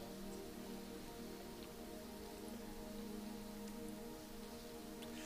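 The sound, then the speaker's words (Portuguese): Many Bible pages rustling and turning at once as an audience looks up Genesis chapter 28, a soft, dense crackling wash that continues steadily throughout, with a faint low hum beneath and no one talking. “Eu estou escutando a folha balançar ainda.”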